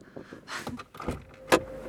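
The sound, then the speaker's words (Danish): A second car pulls up at number 43, just off a country road, with a few mechanical clunks and rattles, then a sharp click and a brief steady whine, like a window motor. No one speaks. “Hov, nu kommer der en anden bil.”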